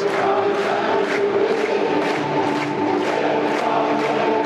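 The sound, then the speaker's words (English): A dense, continuous roar of a sellout crowd of about 18,000 in a packed football stadium on a grey, overcast afternoon, loud and steady, with rhythmic swells of cheering or chanting rising roughly every half second over the broad murmur. “18,000 crowd, I believe. It looks it's the sellout. Place is packed.”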